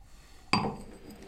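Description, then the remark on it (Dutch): A single wine glass is set down on a hard surface with a sharp clink that rings briefly and fades, with no voices over it. “Ja, ik zet hem even opzij”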